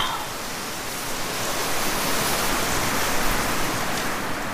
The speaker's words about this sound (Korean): 저 갈대밭이 부는 바람 소리 잘 들어봐.